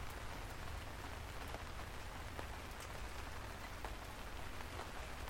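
Steady, soft rain falls in a park in October, a continuous hiss with scattered individual drops ticking through it, holding an even level throughout with no voices.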